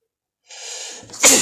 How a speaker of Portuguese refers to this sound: Caralho, vem vontade de espirrar.